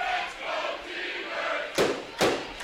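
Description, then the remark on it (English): A dense roar from a large stadium crowd at a football game, chanting for the T-Birds late in the fourth quarter, steady, with two sharp, loud bursts of noise rising out of it near the end. “Let's go T-Bird Chance rising out through the crowd again, trying to close out this victory.”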